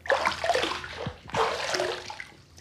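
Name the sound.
water splashing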